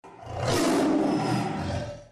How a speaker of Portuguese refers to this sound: Ele já tem uma certa fama e um rugido que é bastante poderoso.